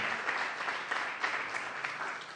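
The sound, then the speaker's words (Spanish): A church audience applauds to give thanks to the Lord, a dense, steady wash of many hands clapping with no clear individual beats, holding fairly even loudness throughout without any voices rising above it. “¿Por qué no le damos un aplauso al Señor y le decimos, gracias Señor?”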